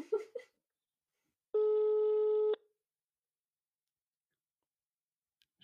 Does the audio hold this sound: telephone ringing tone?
yes